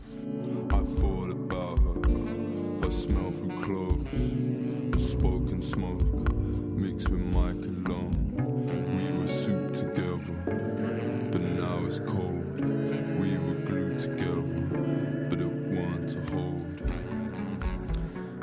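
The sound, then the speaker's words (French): A dense, steady music passage where strummed guitar chords carry the rhythm while a saxophone line floats above, sustained and full throughout without pauses. “En écoutant les accords de la guitare et, du saxophone qui planent dessus, je vois plutôt une jungle urbaine”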